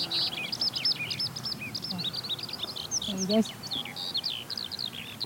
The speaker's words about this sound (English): I've got a skylark here.